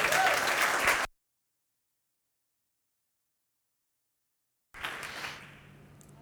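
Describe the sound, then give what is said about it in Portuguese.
Dense applause from an audience applauding the word of God after a sermon, a loud steady burst of many hands clapping that cuts off abruptly, then after a silent gap another round rises and gradually fades out. “Você pode aplaudir essa palavra linda de Deus?”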